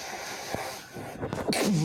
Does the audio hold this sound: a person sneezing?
yes